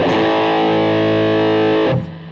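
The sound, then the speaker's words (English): A heavily overdriven electric guitar chord, played through an EVH overdrive pedal, rings out loud and sustained with gritty, saturated distortion, then is cut off abruptly near the end, leaving a faint decaying buzz. No voices. “EVH overdrive, man. This really does give you the sound of an EVH amp.”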